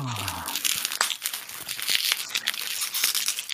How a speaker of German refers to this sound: Oh, schon wieder Knackfolie.